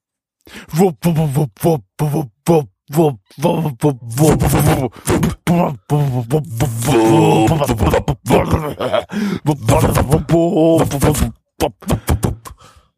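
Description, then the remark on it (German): The ending theme song of the anime Aikatsu Stars: a loud vocal line delivered in short, choppy bursts, with a stretch of longer held notes partway through before it breaks off. “Dies war ein Lied ja, und zwar das Ending vom entsprechenden Anime, den wir gerade geguckt haben, nämlich Aikatsu Stars zu Deutsch.”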